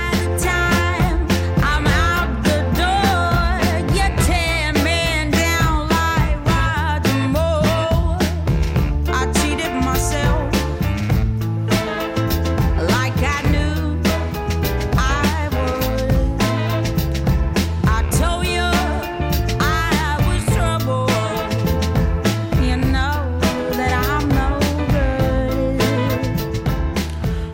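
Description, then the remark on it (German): A soul song plays loud and full, a white female singer's lead vocal carrying over steady drums, bass and horn-like backing throughout. “Gehen wir zum nächsten Titel. Das ist ….”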